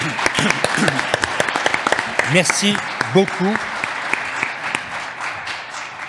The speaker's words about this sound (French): Applaudissements